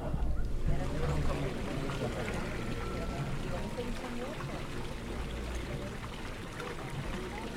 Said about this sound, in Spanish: la fuente, que con el chorrito, manando, está en medio de la plaza de Santa Isabel